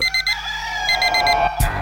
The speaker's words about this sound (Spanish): Suena el despertador.